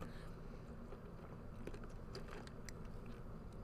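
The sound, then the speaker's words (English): Drinking with wet mouth clicks and a few gulping swallows over about three seconds, set against a steady low hum, with no talking. “I'm sorry if you just heard like a big gulp.”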